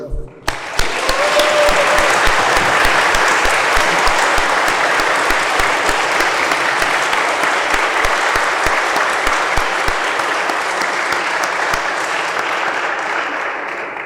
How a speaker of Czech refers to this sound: My moc, moc děkuji oběma našim řečníkům, panu doktoru Špidlovi Tahle ten, tahle ten potlesk budete muset ještě jednou zopakovat pro pana doktora Teličku.